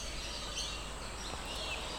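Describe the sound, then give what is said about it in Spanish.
Small birds chirp faintly outdoors in nature, their high twitters blending into a steady airy background hiss, with no one speaking. “Los pajaritos en la naturaleza me dan toda la energía que necesito hoy para estar aquí contigo.”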